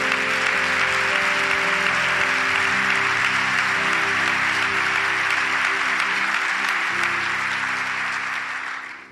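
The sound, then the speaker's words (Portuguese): A large church audience claps loudly and steadily for several seconds in applause to Jesus, a dense wash of applause over a soft sustained keyboard tone, easing off slightly at the very end. “Vamos aplaudir bem alto a Jesus, vai.”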